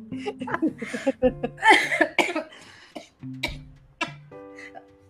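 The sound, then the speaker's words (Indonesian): A run of sharp coughs, set off by hearing a crude word, comes in several bursts over a few seconds, mixed with brief voiced sounds and what seems like light laughter in between. “sampai batuk lo dia lo dengar kata memek lo”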